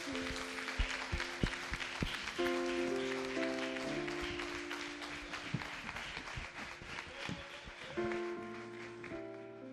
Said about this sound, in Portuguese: As palmas louvam o nome do Senhor Jesus.